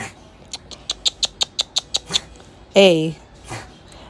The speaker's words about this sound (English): excuse me, if you hear that noise in the background, you hear my TV and you hear this cat getting ready to cough his lungs out.